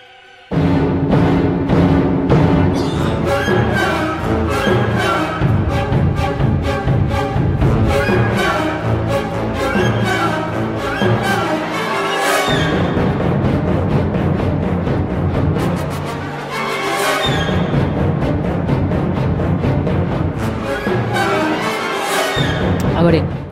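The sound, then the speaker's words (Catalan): Orchestral ballet music from The Rite of Spring (La consagració de la primavera) plays loudly and continuously, dense sustained harmonies layered with driving rhythms and a few sharp, heavy accented hits landing every few seconds. No voices are heard. “La consagració de la primavera, que està considerada, sí. com deia, una de les obres capdals del moment i que, si voleu, sentim un trosset.”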